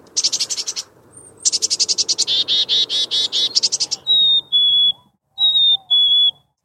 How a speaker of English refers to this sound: Chickadees also give a high pitched alarm call with a series of very high and thin notes strung together